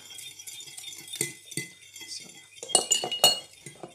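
Food being grated on a small rasp: a series of short, scratchy rasping strokes at an uneven pace, growing louder and quicker toward the end, with faint metallic clinks mixed in.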